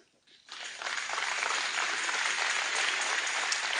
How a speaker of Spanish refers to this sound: ¿Le das un aplauso?